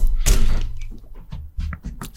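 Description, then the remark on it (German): A solid thud near the start as a bottle is grabbed and held onto, followed by softer knocks and faint handling sounds, with no talking. “Bei Ihrer Flasche.”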